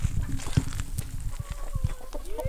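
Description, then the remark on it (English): A flock of chickens on a farm clucking busily and running in a small stampede, with scattered sharp clucks, rising squawks and a rustle of scurrying feet over a constant low rumble. “There is a small stampede of chickens.”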